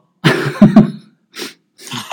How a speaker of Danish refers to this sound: Du må hoste i selvforsvar.